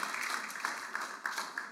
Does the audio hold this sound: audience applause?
yes